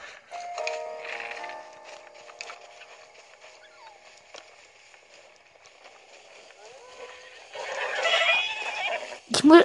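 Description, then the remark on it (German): Horses whinny and neigh, with harmonic calls early on and a louder burst near the end, mixed with faint background sounds and a sharp noise at the close. “Scheiße, der Love Glitch funktioniert bei Pferden ja nicht. Die werden durch das Pfeifen hier angelockt.”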